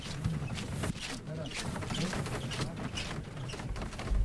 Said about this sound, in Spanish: Comienza a entrar el paso. Como, como cruje la madera.